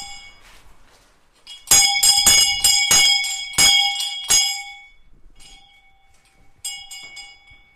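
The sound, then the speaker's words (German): A school bell in the village school museum in Diesdorf rings out loudly to mark the start of a lesson, with a quick series of bright, metallic strikes for a few seconds, goes quiet, then clangs briefly again. No one speaks. “So klingt es, wenn in Diesdorf die Schulstunde beginnt.”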